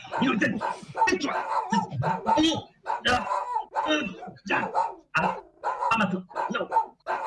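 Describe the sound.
A dog barks repeatedly in short, loud bursts, the barks coming in a rapid, uneven series with voices mixed in among them.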